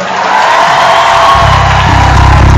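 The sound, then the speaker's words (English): An audience claps and cheers loudly and steadily, a dense wash of applause and raised voices that swells slightly toward the end, with no clear speech. “If you want to clap, clap well.”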